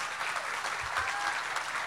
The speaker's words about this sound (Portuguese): Uma salva de palmas.